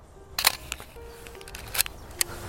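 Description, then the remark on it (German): Three crisp camera shutter clicks, spaced unevenly a second or so apart, as a photo of a small stream is taken, over a soft steady outdoor background hiss, with no talking. “Ist das Foto für heute auch im Kasten?”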